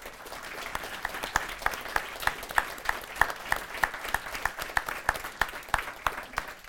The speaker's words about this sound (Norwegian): Men eh, vi vil takke for at dere kom, for at dere stilte veldig gode spørsmål. Så ta en applaus for det.